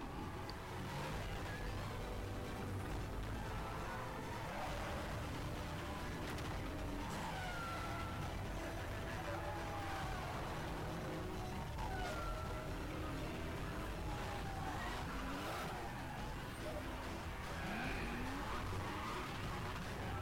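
car engine revving

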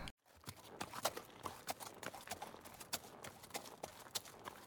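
horse hooves clip-clopping

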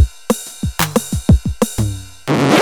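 drum machine beat

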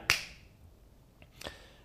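hand clap

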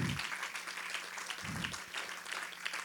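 audience applauding

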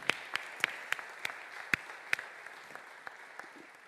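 church audience applauding

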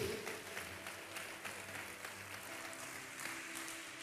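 audience clapping

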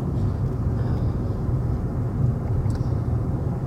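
car driving

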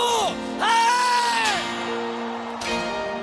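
audience shouting and cheering

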